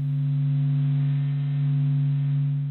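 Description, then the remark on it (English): A sun sonification, a scientist's translation of the sun's movement waves, loops and eruptions into sound: a steady, gentle low-frequency hum with two strong sustained tones and faint higher overtones, holding evenly throughout with no speech. “Now, this gentle, low frequency hum isn't necessarily what Icarus would have been listening to in his final moments.”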